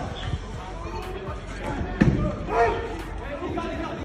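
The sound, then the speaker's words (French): Police strike a door and a glass shop window with batons a few times at irregular intervals, trying to break down the door and smash the window to get into the premises; loud, with muffled voices and crowd noise in the background. “Finalement repoussé à l'extérieur, les policiers tentent à nouveau de rentrer dans les locaux en essayant de défoncer la porte et de briser la vitrine à coups de matraque.”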